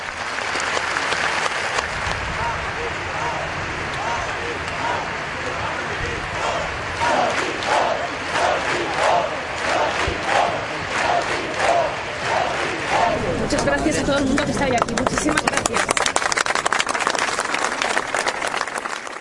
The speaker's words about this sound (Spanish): Al final, un grito unió a todos los asistentes como una sola persona. No timpo en catalán. En castellano quiere decir no tengo miedo. No tengo miedo.